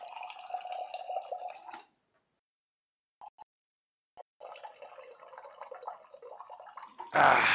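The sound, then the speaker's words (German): Water pours steadily into a container, stops, then resumes after a pause with a few small drips in between, ending in a louder splashy burst. “Nicht wundern, ich brauche ein bisschen Wasser.”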